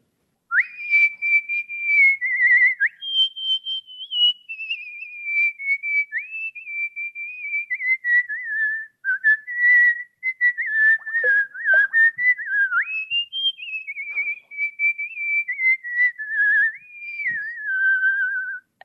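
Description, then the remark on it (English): A person whistles the folk tune Waltzing Matilda at a whistling event, with clear sustained notes gliding between pitches and brief breaths between phrases, for nearly twenty seconds with no talking. “Um, this is Waltzing Matilda, and this is for my Australian whistlers.”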